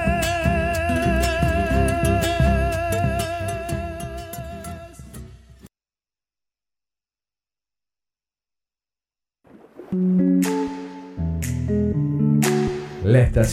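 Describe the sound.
A folk song plays loudly on the radio, sustained melody over a steady strummed rhythm, then cuts off into roughly four seconds of silence before someone begins speaking.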